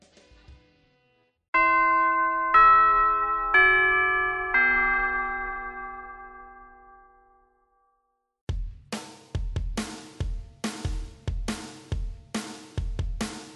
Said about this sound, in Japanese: ということで、チャイムも鳴りましたので、えー、活動のまとめをしていきたいかと思います。